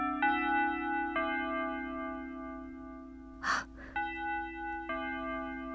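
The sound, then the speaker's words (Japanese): A school chime rings out in a classroom in sustained, bell-like tones struck one after another. Midway through, a sharp breathy gasp cuts in before the chime resumes. “そこへいきなりチャイムの音が響く”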